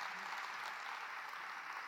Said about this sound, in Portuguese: Quem pode dar um aplauso ao Senhor Jesus por isso?